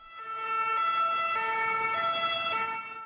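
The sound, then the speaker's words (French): An ambulance siren of SAMU trucks queuing in front of a ward's building to drop off Covid patients, March 2020, wails in a steady two-tone pattern, alternating high and low pitches every half second or so, prominent, with faint road noise beneath and no voices. “Les camions du SAMU font la queue devant notre bâtiment pour nous laisser les patients.”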